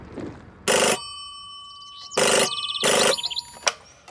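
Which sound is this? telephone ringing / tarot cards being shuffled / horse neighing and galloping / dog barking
telephone ringing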